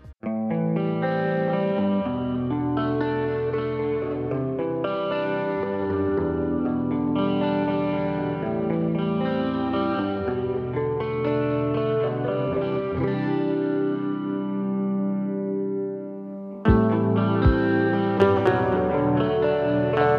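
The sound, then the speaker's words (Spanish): An original song plays on air, the first one composed for someone. It has dense, effect-laden guitars, chorus-like shimmer and some distortion over a steady full-band sound. It briefly cuts out near the end, then returns slightly louder. No one speaks. “Este, y la primera canción que, se me ocurre componer para alguien.”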